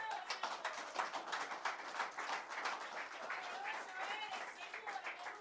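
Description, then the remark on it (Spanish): A crowd claps steadily and continuously in applause for the Lord (God), a dense wash of many hands applauding at moderate volume with scattered voices mixed into the noise. “Dale un fuerte aplauso al Señor.”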